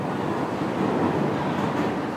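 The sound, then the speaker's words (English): A steady, dense rumble of a subway train in an underground station, broad and continuous with a low roaring body, fairly loud with no voices. “First, there is the wait for the train.”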